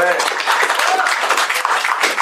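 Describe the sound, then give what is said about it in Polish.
An audience breaks into steady, loud applause, a dense crackle of many hands clapping at once that holds an even level throughout, with a faint voice or cheer at the very start. “Dlatego jeszcze raz proszę o, o klaski.”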